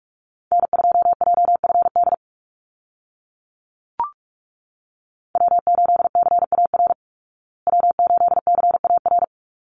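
Rapid Morse code call signs, each repeated three times, at about 45 words per minute: three bursts of fast on-off beeps at one steady mid-high pitch, with a brief click in the first gap and no voices.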